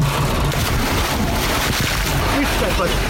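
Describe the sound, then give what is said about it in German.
Water churns and splashes steadily for a few seconds after someone jumps from a springboard into a cold pool, a dense wash of noise with faint voices in the background. “Aber was du sehr gut gemacht hast, ist, dass du vom Sprungbrett ins Wasser gefallen bist.”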